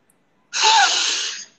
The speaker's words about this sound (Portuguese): Respirou profundamente, respira o amor. Respira, inspira o amor.